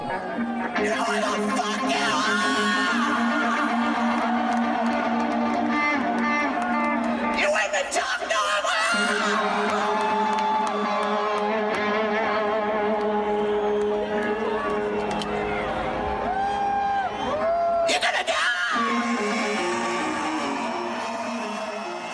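A live rock concert recording: a large crowd cheers, yells and whoops continuously and loudly for over twenty seconds, with sustained, dense sound filling the venue and brief surges of noise.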